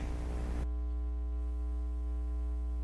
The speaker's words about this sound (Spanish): tiene un dispositivo encendido que está retroalimentando el lenguaje de la radio para ver si lo puede apagar y que quede más fácil que no se oiga esa interferencia.